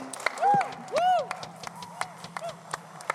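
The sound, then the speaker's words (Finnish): Scattered audience applause, a quick irregular patter of claps that carries through, with a couple of loud rising-and-falling cheering voices near the start; the audience applauds Jesus after a song with the band. “Annetaan Jeesukselle aplodit vielä.”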